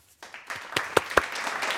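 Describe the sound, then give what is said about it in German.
Dubbed-in applause added for a YouTube video swells up after a brief quiet start, a dense wash of clapping with a few sharper, louder claps standing out, continuing steadily to the end with no voices. “Applaus, da kommt dann noch so ein nachvertonter Applaus für YouTube.”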